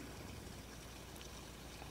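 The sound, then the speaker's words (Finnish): A dog urinating: a steady, soft trickle of liquid running continuously for a couple of seconds, fairly faint, with no voices. “Jos toi kuuluu, niin meikäläisen lämpösel tuli pissaa.”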